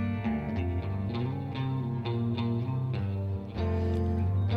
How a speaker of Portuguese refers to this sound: Coisa linda. Introdução bonita. Reverb na guitarra.